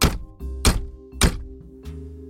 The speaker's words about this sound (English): Finally, I used the heel of my hand to bang on the door, and I was surprised to hear the thud echo.